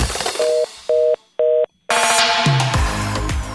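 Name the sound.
telephone busy tone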